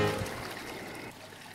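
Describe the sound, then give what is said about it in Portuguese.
A toilet flushing, a soft rush of churning water that tapers slightly toward the end, with no voices over it. “Você está ouvindo? Descarga!”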